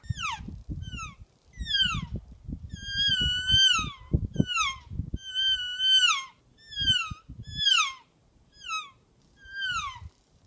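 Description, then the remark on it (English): About ten short, high-pitched elk calls blown on a Real Game Calls elk reel game call, made in Gypsum, Colorado, each a squealing whistle that bends in pitch. They repeat in a steady series, with low rumbling clatter under the first half. “Real game calls featuring the elk reel.”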